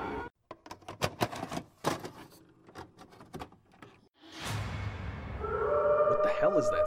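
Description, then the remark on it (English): Rapid, irregular clattering taps give way to a noisy rush, then dogs howl in long, wavering tones that swell and overlap, fairly loud, over a steady background hiss. “Dogs, they're coming. They're coming your way. They'll be here soon.”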